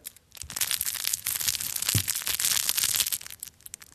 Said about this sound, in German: Genau, das Knisterkrokodil.